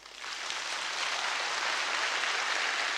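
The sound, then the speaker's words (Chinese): An audience breaks into applause at the end of a talk on teaching Chinese language and children's reading, a dense, steady wash of many hands clapping that swells within the first moment and holds at an even, fairly loud level throughout, with no voices. “哦，稍等，掌声稍等。”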